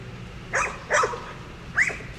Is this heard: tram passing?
no